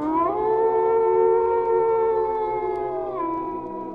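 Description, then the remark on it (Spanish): A single long wolf howl in the darkness rises at the start, holds a steady, loud, rich tone for about three seconds, then slides downward and fades out. No voices accompany it. “Un aullido en la oscuridad.”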